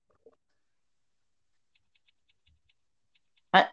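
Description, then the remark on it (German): Faint, scattered clicks of keyboard typing, quiet, ending with one louder clack. No one speaks. “Man, man hört dein Tippen, ne?”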